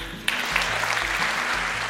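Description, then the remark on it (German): A crowd bursts into sustained applause after a talk, dense clapping rising sharply and holding steady at a loud level with no voices audible. “Gut, da wird richtig geklatscht.”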